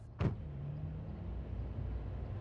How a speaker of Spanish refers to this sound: Tomó un sorbo de agua de su botella, bajó del micro y se subió a un taxi.